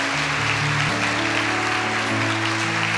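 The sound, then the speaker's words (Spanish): A church audience applauds to welcome people, a dense, steady wash of clapping that holds at an even loudness throughout, with sustained low keyboard chords underneath and no one talking. “Iglesia, démosle la bienvenida con un fuerte aplauso.”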